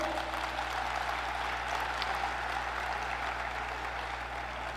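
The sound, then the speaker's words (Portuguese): Steady applause from parents in a church audience during a sermon, a dense patter of many hands clapping at once and holding an even level for several seconds over a low, constant hum. “Tenho certeza que os pais aplaudiram e os filhos ficaram de braços cruzados, não tem problema.”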